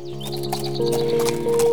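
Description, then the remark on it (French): A stallion ridden by Françoise trots among tree trunks in light mist, with a steady clip-clop of hooves. The sharp hoofbeats come in an even rhythm over a sustained, droning musical tone. “Il vient de reconnaître Françoise hissée sur son étalon.”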